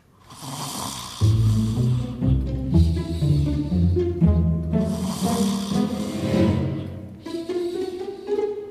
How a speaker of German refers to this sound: Mama schnarchte leise vor sich hin.